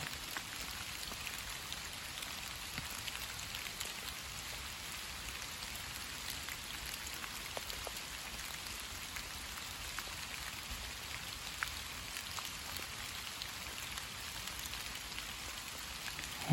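Steady October rain falling in a park built on a former limestone quarry, a dense, even hiss of drops with occasional sharper patters on surfaces, continuous and fairly quiet throughout with no voices.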